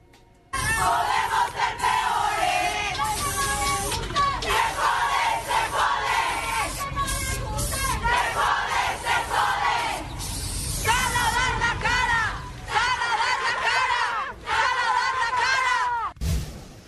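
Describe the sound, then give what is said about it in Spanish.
A large crowd of feminist protesters shouts and chants together loudly and continuously at the Puerta Mariana of the Palacio Nacional, many voices overlapping in rising, rhythmic cries, with a sharp clatter near the end. “Y también hasta Palacio Nacional, donde el presidente Andrés Manuel López Obrador dio su conferencia, eh, da su conferencia todas las mañanas, se escucharon los reclamos de las eh, feministas que en la Puerta Mariana se hacían escuchar así.”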